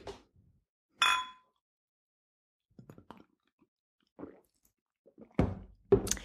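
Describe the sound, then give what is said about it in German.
Glasses clink together in a toast in a bright, ringing chime, followed by quieter knocks and handling sounds, then a couple more sharp clinks near the end. No one speaks. “Prost.”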